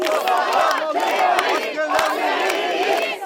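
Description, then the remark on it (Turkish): A large crowd of citizens at Anıtkabir, unable to reach the front of the mausoleum, chants slogans in unison, a loud, continuous roar of many voices with rising and falling rhythmic shouts and a few sharp claps cutting through. “Anıtkabir'in önüne bile ulaşamayan vatandaşlar kimi zaman alkışla, kimi zaman zaman sloganlarla tepki gösterdi.”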